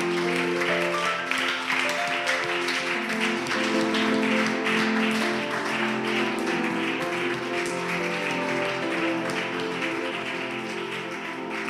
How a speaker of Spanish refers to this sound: ¿Cuántos se comprometen y le celebran a Dios? Le dan un fuerte aplauso.